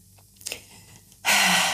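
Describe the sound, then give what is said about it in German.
A long, breathy yawn, starting with a faint intake and swelling into a loud, airy exhale that fills the last half second. No one speaks. “Würdest du aufhören zu gähnen”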